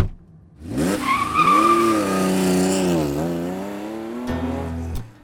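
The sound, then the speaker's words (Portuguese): A fast 1967 Camaro, driven too fast at night on a road bend known as Curva da Morte, roars past, its tires screeching in a long, loud skid with a whining, pitch-shifting squeal that lasts several seconds before a couple of sharp knocks at the end. “Eu adorava carros velozes e dirigi um Camaro 1967.”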